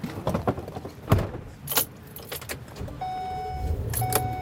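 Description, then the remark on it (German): Keys jangle and a few sharp clicks, then the engine of a bright yellow tour-operator snow coach bus with tires over a meter in diameter starts and settles into a steady hum with a faint tonal whine, no talking; in winter in Yellowstone Park, going to the Snow Lodge at Old Faithful geyser. “Zur Snow Lodge am berühmten Old Faithful Geysir geht es nur mit dem Schneebus eines Touranbieters.”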